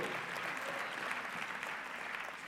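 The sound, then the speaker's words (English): Steady applause from an audience clapping for the Lord, a dense wash of many hands clapping at an even level throughout with no talking over it. “You missed what you should have, you know, clap for the Lord.”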